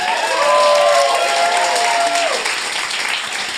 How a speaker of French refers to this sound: Bonne main d'applaudissements